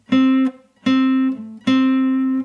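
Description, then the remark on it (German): Two guitar notes, the fifth fret on the G string played with the first finger and the seventh fret on the D string, are plucked together and ring out, repeated three times in quick succession. The steady mid-pitched tones are loud and clear, with no talking. “Dann könnte ich zum Beispiel einen anderen Ton ergänzen, zum Beispiel den siebten Bund auf der D-Seite.”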